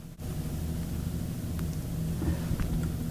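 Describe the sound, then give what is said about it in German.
A steady, low synthetic hum from an electric car standing still in Sport driving mode, droning evenly with a faint airy hiss on top and no speech. “Da gibt es also hier Sport. Da ist der Standsound noch relativ harmlos.”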